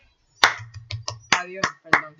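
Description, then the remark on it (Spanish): A handful of scattered, sharp claps for women break out in uneven bursts rather than sustained applause, with voices murmuring and a low steady hum underneath. “Así que quiero empezar con darle un aplauso a las mujeres.”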